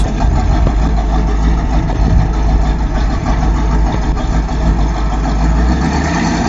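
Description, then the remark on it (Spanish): An old pickup truck's engine, just started and being warmed up in cool weather, runs steadily, a loud, continuous low rumble with a rough, throbbing texture and no voices over it. “Mirá cómo suena ese motor.”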